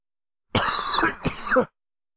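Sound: coughing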